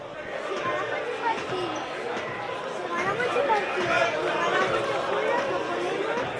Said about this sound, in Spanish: Mira, mira, escuchamos a la grada animación